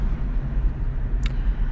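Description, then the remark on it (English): Steady low engine rumble from inside a car driving home through road traffic, with a brief higher-pitched chirp or squeal near the end; no one speaks. “And I do not like coming home in this traffic”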